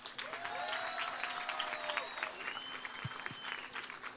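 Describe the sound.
A crowd applauds steadily for about four seconds, dense rapid clapping holding an even loudness throughout, with high sustained whistles and cheering voices rising over it.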